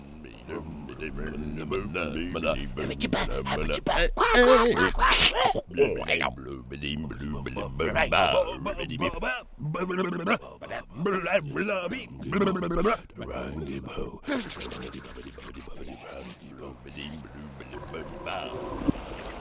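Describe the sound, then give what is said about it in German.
A narrator imitates sea monsters singing horribly in a rhymed story by Rinus Berbig: wavering roars, croaks, whistles and bellows, loud and gurgling, rising and falling over about twenty seconds without any ordinary speech. “Ein Brüllen, ein Krächzen, ein Pfeifen und Röhren. Waschechter Seeungeheuergesang, der wirklich herrlich scheußlich klang.”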